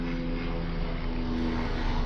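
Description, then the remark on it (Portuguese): A helicopter flies low overhead, its loud, continuous engine drone and rotor hum filling the whole recording with a steady tonal rumble, with no voices heard. “eita, tá passando um helicóptero aqui agora.”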